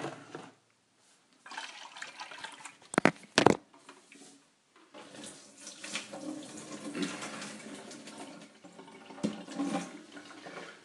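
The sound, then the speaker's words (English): Old, over-boiled water is poured out of a kettle into a sink, splashing, with a pause and two sharp clunks before a steady stream runs for several seconds. No one speaks. “pour the old water, the much too well boiled water, out of the kettle.”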